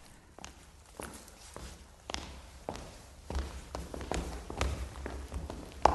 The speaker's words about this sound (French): Dans le couloir, de nombreux pas approchaient.